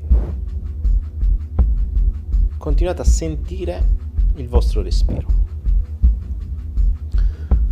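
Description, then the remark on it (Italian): A steady, low drum beat pulses evenly throughout, with a soft, calm voice speaking over it in the middle of the passage. “Continuate a stare in questo stato e a sentire i tamburi sotto la mia voce”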